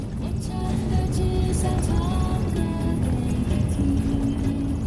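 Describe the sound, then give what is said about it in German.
A car drives steadily over the frozen Heilongjiang River along the border with Russia in northernmost China, its engine and tyres making a continuous rumble with faint whining tones riding on top, never letting up. “Um dahin zu gelangen, muss man ein Dorf weiter, mit dem Auto über den zugefrorenen Fluss Heilongjiang, entlang der Grenze zu Russland.”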